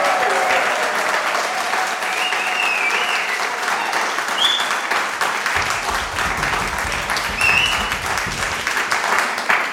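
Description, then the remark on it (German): A large audience of about 400 people in Berlin applauds steadily, dense overlapping claps forming a loud, continuous roar that holds for the whole stretch, with a few brief whoops or cheers rising above it. “Und damit ihr uns das glaubt, brauchen wir einmal einen Applaus von diesen Menschen. Bitte jetzt. Applaus”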